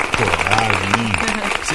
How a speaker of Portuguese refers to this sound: Seis horas e dez minutos, uma salva de palmas, produção.